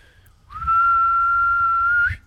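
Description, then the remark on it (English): A single long, steady whistle held at one high pitch for about a second and a half, loud, rising slightly at the start and ending with a brief upward flick. “… is going to whistle out.”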